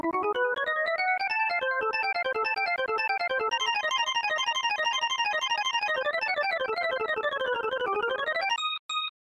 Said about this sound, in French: Écoutez-moi ce solo de clavier les potes.